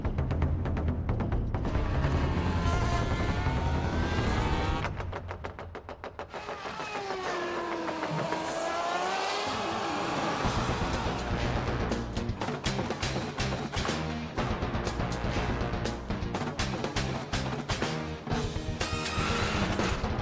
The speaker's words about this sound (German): So klingt also die Hymne der neuen Formel 1